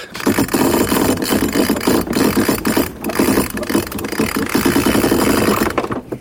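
A sail is hoisted aboard a traditional sailing boat with no motor as it casts off, wind from the north: a steady mechanical rattle of winch or block clicking rapidly for several seconds, dense and continuous with brief pauses, no voices.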